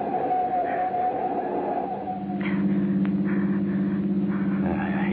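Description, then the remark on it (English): A steady engine drone from a car in motion, low and continuous, with a rising hum partway through as the motor works harder; no voices over it. “Car's been tailing us for the last five. minutes.”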